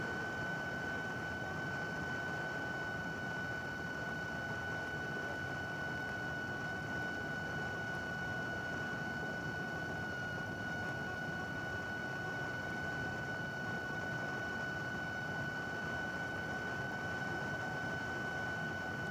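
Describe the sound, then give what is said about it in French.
A steady, faint hiss of volcanic gas escaping from a small rock fissure, recorded with microphones 15 cm away, with a thin whistling tone running unbroken underneath. It stays constant the whole time, alone, with no voices. “Une petite faille dans une roche et il y a un petit souffle d'air qui siffle.”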